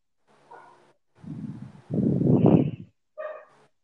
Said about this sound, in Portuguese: Todo episódio, um cachorro tem que latir no meu. meu é todo episódio. Tava demorando, ela é muito emocionada, parece a dona. Espera ela parar de latir.